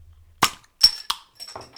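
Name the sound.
beer bottles clinking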